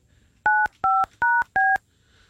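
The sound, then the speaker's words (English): Four loud, evenly spaced touch-tone beeps as a phone number is dialed to call kindergartners for Pep Talk, a Westside School public art project; each a short dual-pitched tone with brief gaps between, clear with no talking. “Yeah, don't put the dial tone too loud”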